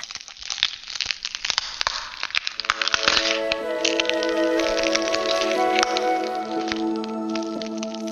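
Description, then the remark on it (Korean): An egg shakes and an eggshell cracks open with a quick series of brittle snaps and crackles, the shell splitting and falling to the floor, then a sustained shimmering, ringing tone swells in and carries on beneath scattered cracks. No one speaks. “알은 조금씩 흔들리더니 마침내 금이 가기 시작했다. 툭 껍데기가 갈라져 바닥으로 떨어지고 실오라기 하나 걸치지 않은 아이가 모습을 드러냈다.”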